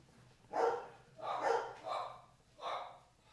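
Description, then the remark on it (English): Dogs bark in a few loud, drawn-out bursts, roughly three or four barks spread over a few seconds, with no talking. “I need to put the dogs that will do this, or I'm gonna have to get up and go chase them.”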